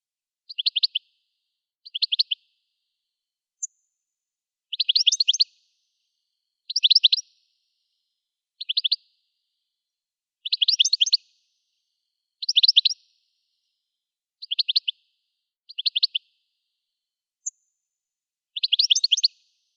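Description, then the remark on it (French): A European goldfinch sings a series of short, bright twittering phrases, about a dozen bursts spaced by brief pauses, clear against a quiet background with no voices. “Le chardonneret élégant.”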